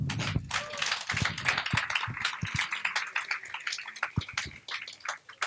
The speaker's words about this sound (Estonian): ja aplaus